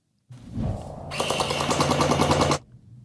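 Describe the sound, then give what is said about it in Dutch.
A motor whirs up, then a fast, steady stream of sharp mechanical shots rattles out for over a second before cutting off abruptly: a DJI RoboMaster S1 robot firing its gel-bead blaster rapidly. “Het was het geluid van een schietende DJI RoboMaster S1 uit de video die David hierover maakte.”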